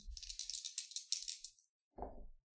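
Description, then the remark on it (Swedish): Two dice rattle and clatter across a hard surface in a quick burst of bright clicks lasting over a second, followed after a short gap by a brief lower tumbling knock as they settle, landing on a one and a two. “Ja, du har två tärningar. Ja. Om du slår dem först.”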